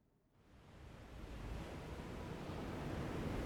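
A rough sea churns under strong wind, a dense, rumbling wash of surf and gusts that swells up within the first half-second and then holds steady and loud, with no voices.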